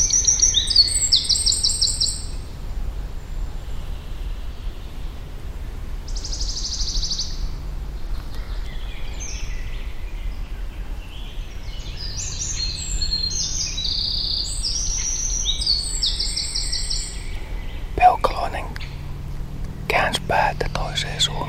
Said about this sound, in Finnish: Siinä on se käpytikka. Mutta huutaako poikaset vielä siellä kolossa? Toi on peukaloinen. Se on sirittäjä. Yllättäen tässä avautuu äänimaailma.